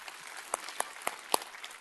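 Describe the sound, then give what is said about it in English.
Soft audience applause for 25 years together since 1997, a steady hiss of many hands with a few sharper individual claps standing out, and no voices. “I clap for that too.”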